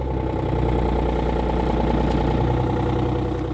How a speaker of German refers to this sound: Der kernige Diesel hört sich nach größerem an, entstammt aber einem nur 3,50 Meter langen Töff-Töff. Von außen ein geschrumpfter Golf mit zwei Türen. Der Knüller steckt in den Innereien der Kurzkarosse. Es ist das erste 3-Liter-Auto der Welt.